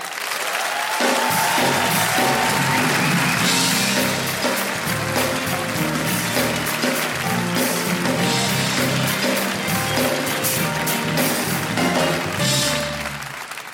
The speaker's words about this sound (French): Il a accepté, je sais pas pourquoi, moi j'aurais dit non, d'accord mais il a dit oui, donc applaudissez-le, monsieur Thomas Wiesel